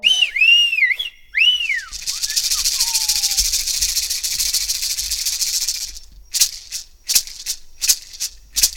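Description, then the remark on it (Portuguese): Indigenous toré ritual music: sliding whistle tones open, then a loud, sustained shaken rattle fills several seconds before breaking into rhythmic, evenly spaced rattle strokes. “Vamos ouvir o último toré de hoje,”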